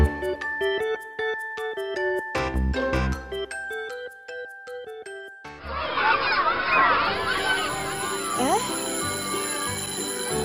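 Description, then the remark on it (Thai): A school bell buzzer rings in a bright run of chiming tones for several seconds, signalling time to go to class, then a loud, bustling crowd of voices swells up while a steady ringing tone carries on underneath. “เสียงออดดังแล้วอุ้ย ต้องไปเข้าเรียนแล้วล่ะค่ะ”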